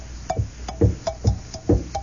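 Metal equipment clinks together in a steady, regular rhythm, about five sharp jangling hits over two seconds, like the top of a mess kit banging against a canteen cup as a company of soldiers marches along, moderately loud.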